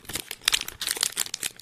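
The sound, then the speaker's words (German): Crisp crinkling of the stiff paper wrapper of a snack bar, a run of sharp rustles and crackles in quick irregular bursts with no talking. “Übrigens, das Papier hört sich so an.”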